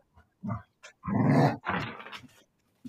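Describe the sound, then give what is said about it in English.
A dog named Tarot growls and snarls excitedly while playing with a toy, in rough, rising bursts, a long throaty rumble in the middle flanked by shorter grunts, fairly loud, with no one talking. “That's Tarot going nuts.”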